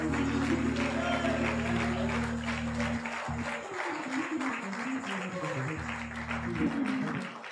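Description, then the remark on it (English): An audience claps steadily and densely throughout to magnify the Lord at a preacher's call, a sustained wash of many hands, with low held organ-like tones underneath and scattered voices mixed in. “Why don't somebody clap your hands and magnify the Lord?”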